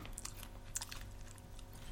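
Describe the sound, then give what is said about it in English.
Crisp chewing of crunchy smoky barbecue roasted crickets, with repeated sharp crackles and crunches at an irregular pace over a low, steady background hum. “Oh, okay smoky barbecue crunchy roasted crickets.”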